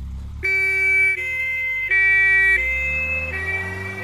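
A loud ambulance siren alternates between two pitches in steady, roughly second-long steps, its bright, buzzy tone carried over a low vehicle rumble, with no voices.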